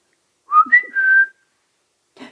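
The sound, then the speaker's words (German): A clear whistle from something flying through a park at night from tree to tree: two quick rising chirps followed by a longer steady tone lasting about half a second, then silence and a faint brief rustle at the end. “Da, da fliegt was durch den Park, von Baum zu Baum, von Busch zu Busch und pfeift.”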